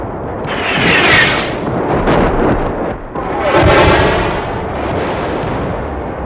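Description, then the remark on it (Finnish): Continuous rumble of distant artillery fire carrying far through clear autumn air, dense overlapping booms rolling together into a loud, sustained roar with a brief dip midway before surging again. “Jyrinä jatkui. Mahtavana pauhuna se kantautui kauaksi läpi kuulakkaan syysilman.”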